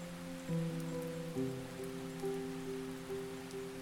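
Raindrops patter steadily on a hard floor outside, heard during a school class, a soft continuous hiss of tiny impacts, with a low sustained musical drone humming underneath throughout. No one speaks.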